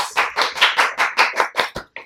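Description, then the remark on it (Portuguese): Loud, sharp claps from an audience in a steady, even rhythm, about ten in quick succession over two seconds, with no talking over them, welcoming a couple as guests on the show Sem Corte. “Olha quem tá aqui hoje, o menor casal do mundo, palmas.”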